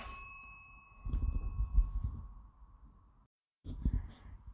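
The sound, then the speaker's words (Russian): A doorbell chimes once as the speaker's parents arrive, its bright ringing tone slowly fading over a couple of seconds, while low muffled thumps and rustling continue, followed by a brief silence and more dull knocks. “Так, э, извините, короче, возможно, вы могли услышать звонок. Это просто приходили мои родители”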